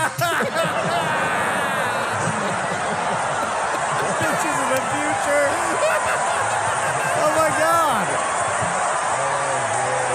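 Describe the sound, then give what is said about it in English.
The Wheel of Fortune studio audience reacts to a contestant's puzzle answer with a loud, sustained roar of murmuring, laughter and exclamations that fills the whole stretch, with individual voices calling out over the din. “Listen to that crowd.”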